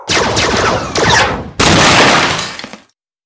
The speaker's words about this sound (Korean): 잠시 후 총소리와 함께 이주국 직원들이 카페 ADRA의 문을 부수고 들어왔다.